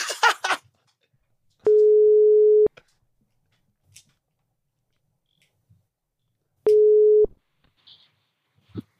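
A brief burst of noisy dialing clicks, then a telephone ringback tone: a steady single-pitch beep lasting about a second, a long silent pause, and a second beep, clear with no talking.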